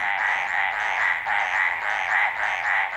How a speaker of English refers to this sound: Carlos Davidson recorded these mountain tree frogs barking away in the Coconino National Forest in Arizona.